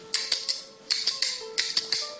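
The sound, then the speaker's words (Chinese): A kuaiban bamboo clapper, small board in the left hand and large board in the right, plays the basic single-beat rhythm: nine crisp wooden clacks in three even groups of three, with short pauses between groups and no talking. “快板的基本打法呢，我们从左右手分开来讲，左手原则上拿小板，右手原则上拿大板。”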